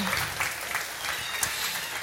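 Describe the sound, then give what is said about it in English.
An audience claps steadily for one another after a game, a dense wash of many hands applauding at once, sustained and fairly loud with no voices standing out. “Well, everybody give each other a round of applause.”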